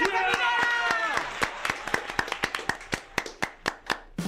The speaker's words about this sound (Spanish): Y este aplauso es para ti